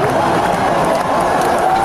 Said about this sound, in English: They start clapping for it.